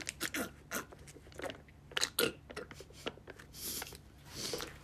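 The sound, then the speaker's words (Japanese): Wet, squishy chewing of tapioca pearls from a reduced-sweetness tapioca drink ordered through Uber, a run of irregular smacking and crunchy bites, fairly quiet, with no talking over it. “汚い音最悪あのタピオカを買ったんですウーバーで甘さ控えめにしたんですけど甘さ控えめにしてもめちゃくちゃ甘くてなんかあれなんですよ”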